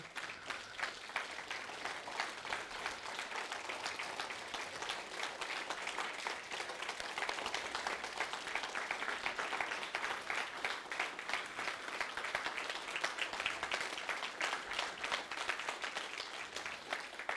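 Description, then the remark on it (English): An audience claps steadily for about seventeen seconds for mothers who are standing, a dense, even patter of many hands with no voices over it, holding a constant level throughout. “Thank you for clapping for them, but that's not why they're standing.”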